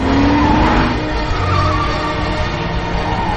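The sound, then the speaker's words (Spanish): A Smart car reverses fast against heavy oncoming traffic, chased by police, its engine loud and straining and tires squealing in a high, sliding screech, over a dense roar of traffic noise, with no one talking. “Ella conduce marcha atrás en sentido contrario al intenso tráfico.”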